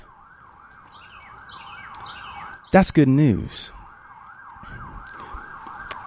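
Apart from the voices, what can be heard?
ambulance siren passing by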